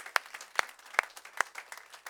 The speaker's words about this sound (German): Lass uns ihnen einen Applaus geben heute Morgen und äh, einfach Danke sagen.